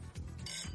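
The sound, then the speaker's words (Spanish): Glasses clink together in a quick toast, a short bright ring that fades within a moment, with low murmuring underneath. “porque vamos a abrir el Frank, ¿no? Salud.”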